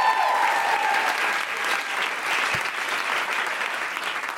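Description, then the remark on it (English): A sustained round of applause from a sizable audience, a dense, steady patter of clapping that stays fairly loud and even across the whole stretch, with no one speaking over it. “round of applause for Susan Wokoma”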